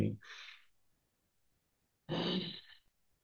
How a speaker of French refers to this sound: Euh, première chose, c'est juste pour vraiment prendre un bon coup de respiration.